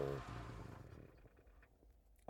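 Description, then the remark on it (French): A car engine hums steadily while driving, a low, continuous rumble heard from inside the vehicle, with a brief higher tone at the start that fades into the road noise. “ASMR voiture, ASMR routier avec musique.”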